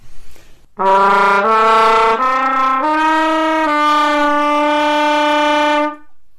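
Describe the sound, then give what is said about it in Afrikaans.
A jazz brass horn plays a short phrase in a straight tone, sustained, steady notes without vibrato, stepping through several pitches before holding a final long tone, loud and alone with no talking. “So daar's 'n reguit klank.”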